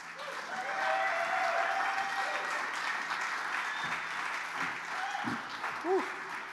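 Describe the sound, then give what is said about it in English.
Sustained applause from a sizable crowd welcoming a speaker in the morning, steady and fairly loud throughout, with a few scattered voices and cheers rising faintly above the clapping near the end. “Please give a very warm welcome to my friend and my brother”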